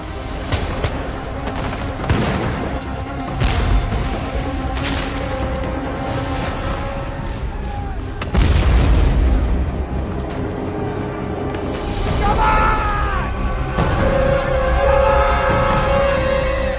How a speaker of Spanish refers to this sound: Los rebeldes corren 100 metros hasta las líneas británicas bajo el fuego y una lluvia de granadas de mano.